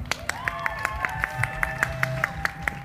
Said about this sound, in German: beim wunderbaren CSD in Halle, das ist nämlich der Halle, da hinten, kräftigen Applaus für den CSD Halle, das darf man in Leipzig auch mal machen